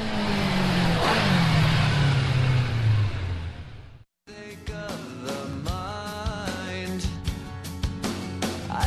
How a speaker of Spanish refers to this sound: después de arrancar motores, calentar un poco, solo un poco